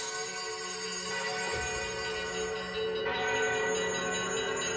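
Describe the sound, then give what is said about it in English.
Every bell in a house rings together, including the front door, side door, bedside and tower bells, in a dense, continuous clangor, their overlapping tones shimmering without a break for several seconds. The ringing stays loud throughout, with no voices. “It rang out, and then so did every bell in the house.”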